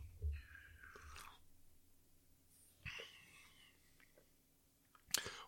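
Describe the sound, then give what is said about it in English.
Someone takes a big gulp of a very cold drink resembling a darker Hawaiian fruit punch: wet swallowing and mouth sounds in a few short bursts separated by quiet pauses, ending with a sharper click of the lips. “Yeah, I just took like a nice big gulp.”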